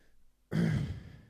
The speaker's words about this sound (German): alle gähnen.